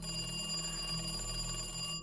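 A telephone rings steadily with a bright, continuous electric bell tone, alone, at the home of bank manager Andreas Lund in Lillehammer, Norway, at seven in the morning on Tuesday 9 April 1940; the caller is central bank governor Nikolai Rygg. No voices.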